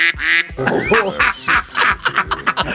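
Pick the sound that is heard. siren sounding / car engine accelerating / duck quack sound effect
duck quack sound effect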